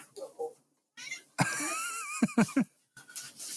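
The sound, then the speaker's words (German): A cat meows with a drawn-out, wavering cry, followed by a few short sharp sounds, while a person's voice murmurs briefly before and after. “seine Katze aus dem Fenster werfen”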